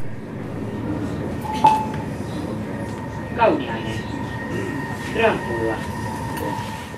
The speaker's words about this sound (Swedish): En tisdag i slutet av augusti tog jag tåget från Helsingfors till Grankulla.